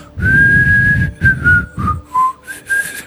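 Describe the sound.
A person whistles a slow, relaxed melody, a few sustained notes drifting down in pitch with short pauses between phrases, clear and unaccompanied.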